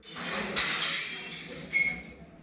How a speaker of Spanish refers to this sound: destrozando a palos los cristales de la oficina de la Secretaría General de esa entidad